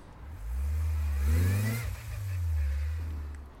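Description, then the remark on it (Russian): A car engine drones, rising in pitch as the vehicle accelerates on the road in rainy summer weather in Saint Petersburg, easing briefly, then pulling steadily again with a low, continuous road rumble underneath. “питерская погода, лето, э, дождь капает по крыше и где-то недалеко стучит э, рабочий, устанавливая леса, поэтому, наверное, вы будете слышать не только звуки дороги.”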